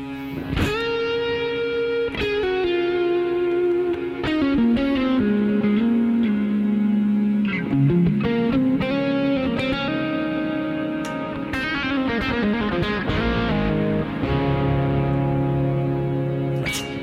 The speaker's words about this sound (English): And I've just turned on the mono uh, wet reverb going before the uh, Infinity Hold sound so I don't reverb that infinity hold and now turn on a little bit of delay.